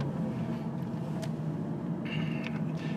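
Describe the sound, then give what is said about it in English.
A steady low rumble of a car driving along a road with grass growing on its verge, heard from inside with continuous engine and tyre noise, plus a few brief higher-pitched squeaks and rattles; the driver is taking a dog to the vet. “including grass growing along the verge of this road that I'm driving along.”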